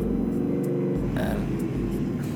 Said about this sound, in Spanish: Pasó un carro muy. Como muy viejito, gigante. Viejito y gigante.